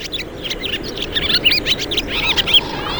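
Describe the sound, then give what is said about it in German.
Rapid, twittering chirps from barn swallows, a lively chatter of high notes over a steady low rumble of background noise. “denn in den nächsten Wochen werden sie verschwunden sein, die Rauchschwalben.”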